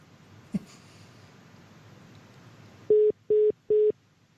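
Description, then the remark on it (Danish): Three evenly spaced electronic ringback tones pulse on a phone line during an outgoing call, each a steady mid-pitched beep lasting about a fourth of a second, following a brief click and quiet line noise. “Jeg håber, hun tager telefonen.”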